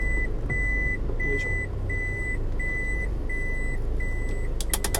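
A car's warning chime beeps steadily as the driver stops the car, about seven short, clear tones evenly spaced over a low, constant engine and road rumble, with no one speaking.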